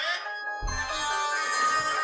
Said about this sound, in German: Entschuldigung, das war mein Handy.